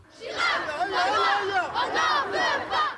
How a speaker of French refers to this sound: Ils étaient près de 2000 à manifester contre le projet de loi sur le voile à l'école. Un défilé dans le calme, sous le regard discret d'un important service d'ordre et d'une centaine de policiers.